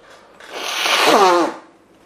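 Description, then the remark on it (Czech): Someone blows their nose once, a loud, breathy rush of air lasting about a second that turns into a wavering, honking buzz toward the end, with no talking. “Budu smrkat, tak se dneska, přátelé, nedivte”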